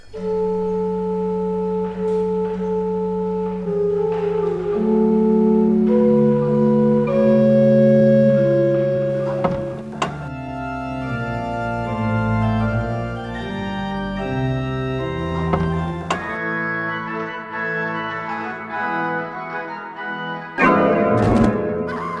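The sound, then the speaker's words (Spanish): The organ of the church of Santa Inés, played by Maese Pérez and broadcast live on Canal Sur Radio during the elevation of the host, plays sustained chords with rich, layered harmonics, the notes shifting slowly in pitch and swelling steadily, with a brighter, busier passage near the end; no one speaks. “Escuchen en directo para todo el mundo a través de Canal Sur Radio el órgano de Santa Inés, interpretado por Maese Pérez.”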